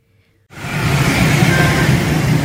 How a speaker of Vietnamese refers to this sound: Thưa quý vị, theo ghi nhận của phóng viên, dọc các tuyến đường Phổ Văn Kiệt, Kinh Dương Phương, khu vực bến xe miền Tây, Do có lượng xe máy dày đặc nên thường xuyên xảy ra tình trạng ủng tắc giao thông.